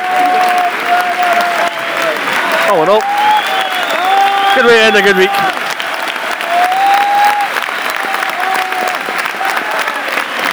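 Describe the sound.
A large football crowd applauds steadily in a stadium at full time, a dense wash of clapping that carries on for the whole stretch while a man talks over it.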